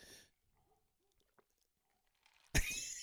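Quiet wet mouth and swallowing sounds as someone gulps a drink, a few soft gulps spaced apart, then a sudden loud, harsh rush of noise near the end.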